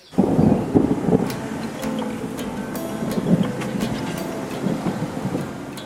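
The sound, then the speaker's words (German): Rain begins to fall on the way back to the capital: steady rain patters down over a deep, continuous rumble, with scattered sharp drops ticking through the hiss. No one speaks. “Auf dem Weg zurück in die Hauptstadt setzt der Regen ein.”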